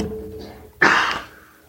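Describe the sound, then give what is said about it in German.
A single sharp cough bursts out abruptly, loud and breathy with a harsh noisy tone, then fades quickly; only faint background sound comes before it. “Ach, pardon für den Huster.”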